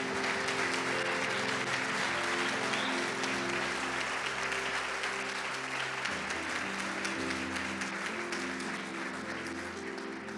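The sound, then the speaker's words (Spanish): A large crowd claps steadily for about ten seconds, a dense, continuous wash of applause that stays loud throughout, with sustained low musical tones humming underneath; an audience applauding in honor of Jesus while celebrating his resurrection. “Dele un aplauso a aquel que vive y reina por siempre.”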